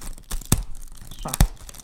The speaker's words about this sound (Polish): Jezu, jak ciężko się rozpakować.